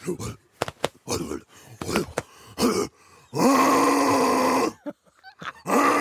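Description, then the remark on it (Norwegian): A person imitates a gorilla's dominance display: a string of short, guttural grunts and groans, then a long, loud, rough roar-like bellow, ending with a few more bursts. “Men hvordan er det når han skal markere dominans, den eh, gorillaen? Få høre.”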